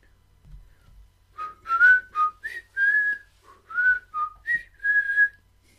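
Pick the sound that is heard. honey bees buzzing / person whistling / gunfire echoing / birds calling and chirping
person whistling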